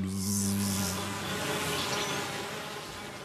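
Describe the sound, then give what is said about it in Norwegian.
Steady buzzing of bees with a droning hum that wavers slightly in pitch, heard on its own with no voices, at a moderate level throughout. “For like vesentlig og viktig som stormaktskrangel i FN og lagnaden til euroen, er det som surrer rett framfor nesen på oss, igjen.”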